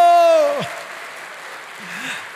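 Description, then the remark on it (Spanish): A crowd applauds the Lord in a steady, dense wash of clapping throughout. A held, sliding vocal note rings over the start, and a faint voice murmurs briefly near the end. “Otro fuerte aplauso al Señor.”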